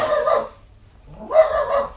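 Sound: dog barking at night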